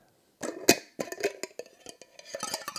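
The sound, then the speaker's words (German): A glass jar being opened: a quick run of sharp clinks, scrapes and rattles of glass and lid, with one bright, louder clack early on, and no voices. “Okay, das Glas wurde geöffnet.”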